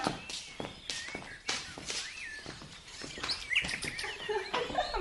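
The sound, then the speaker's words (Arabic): A songbird in a spacious, carved cage hung in the central courtyard of a house chirps and warbles repeatedly in short, high, bright bursts, mixed with scattered soft tapping and clicking sounds; no one speaks. “سيدنا عامل له قفص منقوش وواسع ومعلقه في الوسطية مزينها بمنظره وبصوته ريت ريت كيف يطير من بقعة لبقعة”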